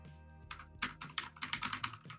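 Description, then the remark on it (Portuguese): Rapid clicking keystrokes on a new mechanical keyboard, a steady burst of sharp clacks with a faint hum underneath and no voices, as someone types to check whether the microphone picks it up. “Eu queria comentar que eu comprei um teclado mecânico.”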